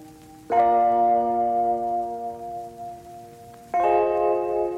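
Opening of a Latin pop song: a bright, bell-like chord rings out and sustains, then a second chord strikes near the end, with no vocals yet.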